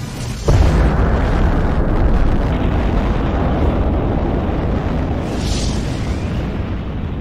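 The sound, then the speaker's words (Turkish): The atomic bomb carried to Hiroshima by the Enola Gay: a sudden loud detonation followed by a massive, sustained low rumble that roars on for several seconds without fading, with no voices. “Atom bombası Aynı zamanda nükleer döneminde kapısını araladı.”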